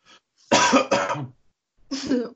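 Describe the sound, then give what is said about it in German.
A few soft, muffled coughs, held back and suppressed: a faint breath, then a double cough burst, a short pause and one more subdued cough. No one speaks. “Ich habe gerade auch ganz leise gehustet.”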